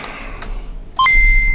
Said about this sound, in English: Calculating computer activated. Computers. Beeps. Beeps.